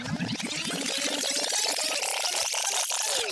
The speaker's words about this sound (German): Alter, ich schmeiß dir jetzt einen Rewind-Sound rein und schön richtig Fade-in, Flex in unseren wunderschönen Jingle.